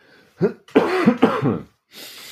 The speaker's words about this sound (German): Ich muss erstmal kurz husten, warte.